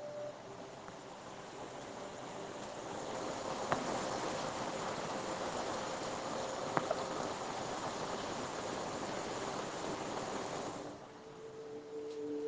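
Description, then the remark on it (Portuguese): Steady rainfall hisses in a dense, even wash of droplets for about eleven seconds, then thins out abruptly near the end. No voices are heard. “ouve o som da chuva, as gotas caindo dos céus.”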